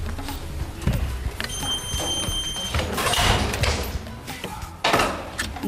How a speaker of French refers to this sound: derrière une porte sécurisée, nous rentrons au cœur du data center, une zone très sensible,